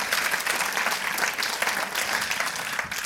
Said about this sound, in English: Just give him a hand, yeah?